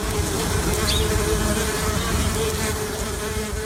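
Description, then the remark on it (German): Wild bees buzz continuously as they fly through the air, a dense, steady drone of several insects, with slight pitch wavering as they move, and no voices. “jetzt hören wir mal einige Wildbienen durch die Luft fliegen.”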